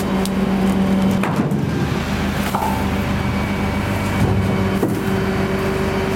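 Christmas trees being tossed by a collection crew into a garbage truck at a Molok container collection point: a steady, loud engine rumble with a humming drone, broken by a few scattered thuds and rustling crashes as the trees land. No one speaks.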